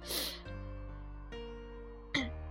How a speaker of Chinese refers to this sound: 啊，那个可能会听到我吸鼻子的声音，我注意一下，还影响体验呢。